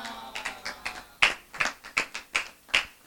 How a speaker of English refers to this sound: Oh, clap, clap, clap for the woman of God.